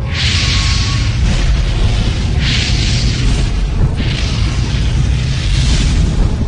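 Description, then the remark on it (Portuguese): A loud, roaring fire blast rumbles continuously with deep low-end force, flaring in several hissing surges over a few seconds, intense with no voices. “Então o Senhor enviou fogo.”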